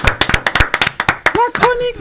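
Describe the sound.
A brief burst of applause from a few people, sharp claps in a quick, uneven patter, followed by voices calling out as the clapping fades.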